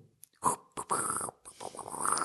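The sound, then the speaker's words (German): A voice mimics a rabbit, like the rabbit noises used to make the 20th Century Fox fanfare, with a few quick, breathy snorts and sniffles, followed by a longer rough, scratchy hiss. The sounds are moderately loud, with no talking. “aber sie kommt, also es wird über Hasengeräusche gemacht. Also es ist nicht so, sondern es ist so, so ein Hase, der halt so schart so.”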